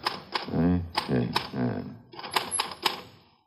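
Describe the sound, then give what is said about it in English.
Manual typewriter keys clack in an irregular run of sharp strikes, about six in all, typing the phrase "Mary had" on paper, with a voice sounding beneath the first half before the typing continues alone. “… could have typed that line to check the typewriter.”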